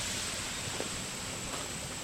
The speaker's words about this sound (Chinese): 哦，这声音超好。 嗯，这水流的声音。